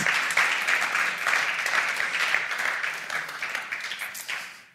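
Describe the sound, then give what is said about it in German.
A church audience applauds steadily for someone who posted the Bible reading plan in the WhatsApp group, a dense wash of many hands clapping at even loudness that fades slightly toward the end, with no voices over it. “Auch für dich ein Applaus.”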